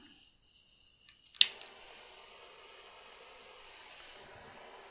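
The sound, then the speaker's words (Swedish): A gas burner torch hisses steadily, then a sharp click ignites it and the flame catches with a broad, rushing roar that keeps going, fairly loud, with no voices; the torch is used to set a strong lemon-essence spirit alight. “Så, och sen så gasbrännare på.”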